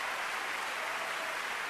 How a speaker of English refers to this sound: This is the sound of 10,942 hands showing appreciation.